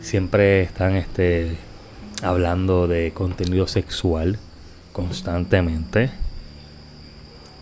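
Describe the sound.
A car alarm sounds as a steady, piercing high-pitched tone that runs continuously under a person talking.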